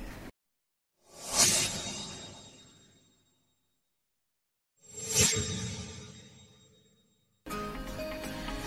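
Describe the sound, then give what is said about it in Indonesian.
Two short radio stinger effects, each a bright swelling whoosh that rises quickly and fades, separated by silence, followed by an abrupt dense burst of sound at the end. No talking. “Dan contoh stinger.”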